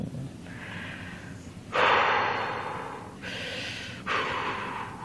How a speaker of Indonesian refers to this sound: Gua tarik napas dulu deh. Ya. Men menenangkan diri gua dulu nih. Biar gak emosi nih. Biar relax nih. Biar kalem.